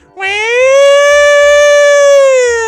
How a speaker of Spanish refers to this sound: ¿Cómo voy a jugar a Calama y no me ponen la sirena, po, pues, weón?